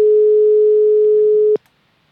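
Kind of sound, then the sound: signal or alarm, telephone busy tone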